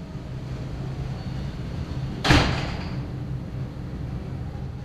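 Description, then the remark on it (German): A heavy iron door to a rehearsal room in a former air-raid bunker in a Giesing backyard slams once with a sharp metallic clang that rings briefly and fades, set against a steady low hum that runs through the whole recording. “Giesinger Hinterhof. Eisentür Eisentürfe zum Probenraum.”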